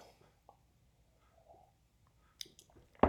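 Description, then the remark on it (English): Someone quietly sips coffee, with faint wet mouth clicks and a brief slurp, then a sharper knock at the end, like a mug being set down. “I'm um, speaking of, I need to have a sip of coffee.”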